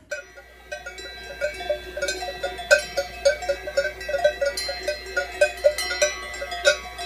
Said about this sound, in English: We're high up in the Swiss Alps, and that sound that you're hearing is a herd of cows wearing cowbells. The cowbell was originally intended to make livestock easier to locate if they wandered off.